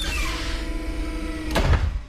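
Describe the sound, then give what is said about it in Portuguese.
A medical center's mechanical door lock engages: a steady motorized hum runs for over a second, then ends in a sharp metallic clack and a low thud as the door latches shut. “Vocês escutam o barulho da trava do centro médico da porta fechada.”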